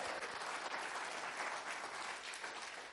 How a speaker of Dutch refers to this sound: Inderdaad, geef ze maar een applaus